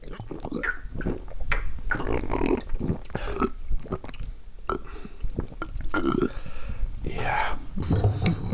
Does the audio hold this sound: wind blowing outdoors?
no